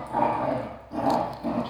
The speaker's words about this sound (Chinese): 由于同学们这个很奇怪的配音呢。是老柯的小狗们呢，冬天太冷没地方跑，在家里玩呢。